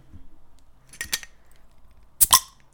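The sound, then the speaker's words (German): A beer bottle is opened: a short metallic click, then a brighter, sharper snap of the cap a second later, with no talking. “Warte, jetzt, ich habe mir eben schnell das Bier hier jetzt geholt. Ich wollte euch die ASMR, wollte ich euch nicht.”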